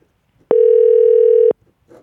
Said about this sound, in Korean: 전화기 컬러링이 올라 올라 올라